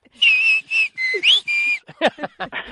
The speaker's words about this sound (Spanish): Entonces con eso puedes silbar cualquier palabra, en principio de cualquier idioma.